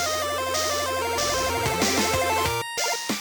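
Upbeat theme music plays loud and continuous, with sustained layered chords and busy pulsing notes, a brief cut near the end before it resumes; no voices.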